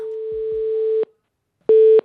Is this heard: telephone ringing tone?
yes